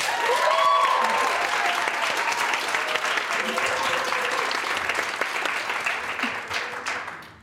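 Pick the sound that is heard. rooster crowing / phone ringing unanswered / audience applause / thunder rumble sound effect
audience applause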